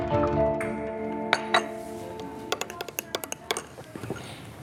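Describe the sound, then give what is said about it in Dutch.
Coffee cups and saucers clink as coffee is served on the terrace of the Bourgondier: a sustained ringing chime at first, then a quick run of sharp, bright porcelain taps over a soft murmur of background noise. “Zo, de koffie staat.”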